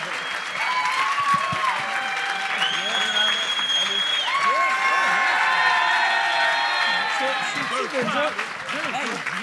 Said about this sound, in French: Faites du bruit, mesdames, messieurs, pour Jer Alain et François Tousignan.